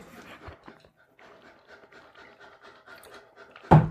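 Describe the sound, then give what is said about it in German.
A dog pants steadily, quick rhythmic breaths repeating for a few seconds, before a sudden louder sound cuts in at the very end. “Nee, Hund.”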